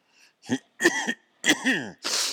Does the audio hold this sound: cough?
yes